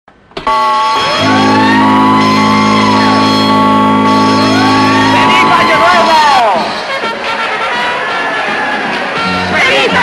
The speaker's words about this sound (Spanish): ¡Todo a Babor De la señal de alarma.